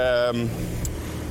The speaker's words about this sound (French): je suis en train de marcher au centre-ville et il y a quand même beaucoup de trafic autour